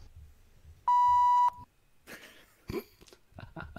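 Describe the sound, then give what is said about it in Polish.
A call-disconnect notification beep: one loud, steady, mid-pitched electronic tone lasting about half a second, with a buzzy, harmonic-rich edge, followed by scattered rustling noises. “się odłączył”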